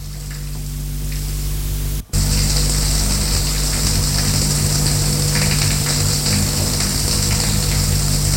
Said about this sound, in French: Après avoir fait ça, elle sort de sa chambre. pour prendre sa douche.